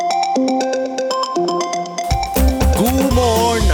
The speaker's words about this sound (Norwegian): Eh, derfor har jeg brukt mine musikalske egenskaper og rett og slett remiksa min egen vekkerklokkelyd eh, til en positiv assosiasjon som jeg gleder meg til å stå opp til. Vi kan jo høre på den.